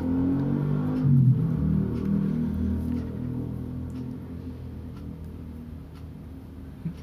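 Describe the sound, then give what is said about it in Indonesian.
A motorcycle engine revs and idles, a loud, continuous droning rumble that swells early on, then settles and slowly eases over several seconds, with no voices. “suara motor”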